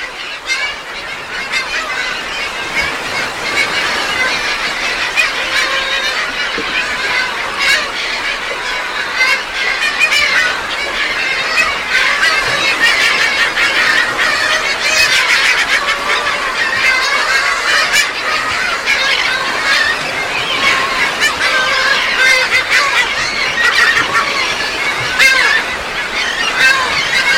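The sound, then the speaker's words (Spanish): A dense colony of Heermann's gulls on Isla Raza calling nonstop, countless overlapping nasal squawks and cackles forming a loud, steady wall of sound with no pauses. “Bueno, esa fue la colonia de gaviotas ploma en, en la isla Raza”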